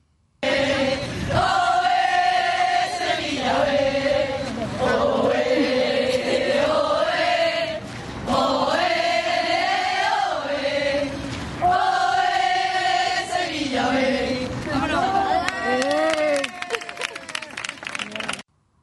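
A large crowd of football fans at a Sevilla Fútbol Club match chants a loud, sustained melodic song in repeating phrases that rise and fall, with rhythmic clapping breaking in near the end.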